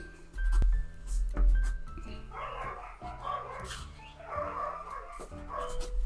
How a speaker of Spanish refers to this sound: bueno, ahí están mis perros ladrando como locos.